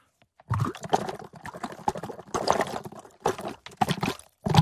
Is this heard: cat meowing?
no